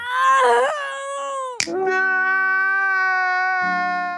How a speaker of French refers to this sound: Même de manière générale, j'aimerais saluer le travail des sound designers, qui à chaque agonie, ah, je me sens pas bien, mais pas bien du tout. Surtout quand les femmes soldats hurlent à la mort.